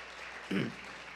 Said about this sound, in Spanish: Dele ese aplauso al Señor porque Él se lo merece.